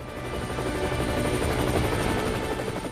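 A helicopter flies close by, its rotor producing a steady, loud chopping thrum with a constant engine whine on top. No one speaks.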